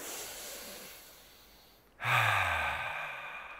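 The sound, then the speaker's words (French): A slow, deep breath drawn in on a count of three as a relaxation breathing exercise, then a louder, forceful sigh-like exhale pushed out, clear with no talking. “Juste prenez une profonde inspiration à trois.”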